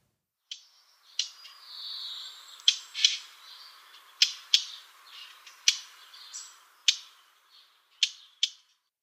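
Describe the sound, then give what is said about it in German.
Sharp, dry tacking calls of a blackcap, like two pebbles knocked together, repeated about a dozen times at irregular intervals, with faint twittering song between them. No voices. “Und zwar der Ruf klingt, als würde man zwei Steine aneinander klopfen. Ich spiele den Ruf einmal ab.”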